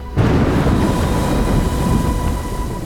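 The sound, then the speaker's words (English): A sudden, loud crack of thunder bursts in and rolls into a heavy, sustained rumble that fills the rest of the moment, overpowering, with no voices. “Laley heard the deafening crack of thunder.”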